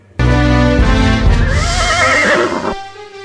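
An Arabian horse gives one loud, sustained neigh lasting about two and a half seconds, its pitch wavering and trembling before it cuts off. No one speaks.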